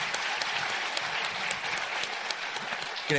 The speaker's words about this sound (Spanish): primero chiflaron, después aplaudieron a Denise y aplaudieron al final